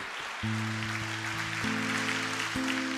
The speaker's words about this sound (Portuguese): Pode aplaudir o Senhor, porque talvez você nem entendeu.